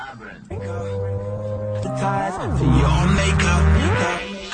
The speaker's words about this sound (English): But this is the sort of song that you've got to shout over as a, as a heart. You've got to shout over this song.